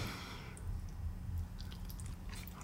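chewing and lip smacking

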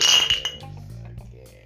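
drinking glasses clinking

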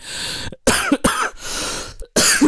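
coughing

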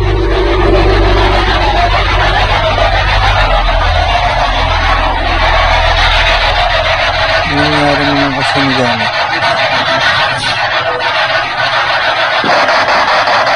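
tap water running

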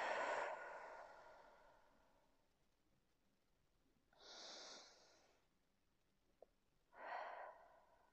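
slow exhaling breath

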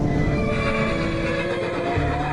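horse neighing

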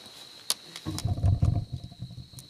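crackling campfire

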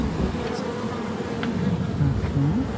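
honeybees buzzing

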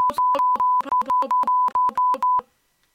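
censorship bleep tone

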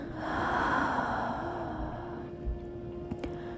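exhaling breath

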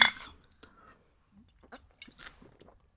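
sipping a soda drink

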